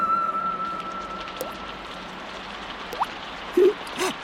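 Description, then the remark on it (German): Scattered raindrops plink and patter on a tin roof, a few distinct drips spaced irregularly over a soft, steady background hiss, with no one speaking. “Mit meinen Freunden auf dem Blechdach rumzuhüpfen ist einfach das Größte.”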